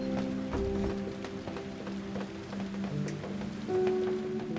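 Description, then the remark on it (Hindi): Raindrops patter irregularly on a wooden surface, a scatter of close, crisp taps over a steady humming tone in the background. “जरा सुनिए धुन बारिश की बूंदों की अलग अलग सतहों पर स्टील पर प्लास्टिक पर टिन पर लकड़ी पर”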